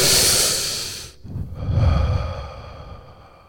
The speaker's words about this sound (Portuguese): Eu fico imaginando o momento em que a respiração de Jesus rompeu aquele silêncio. O ar entrando pela primeira vez depois de sua morte, entrando nos pulmões de Jesus e Jesus respirando.